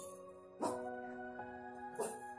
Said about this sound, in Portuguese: Caralho, cachorro tá latindo aqui.